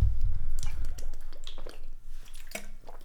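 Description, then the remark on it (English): Wet sipping and swallowing sounds, with small liquid clicks and squishes over a low rumble, as someone drinks water. “Hey, don't drink the water.”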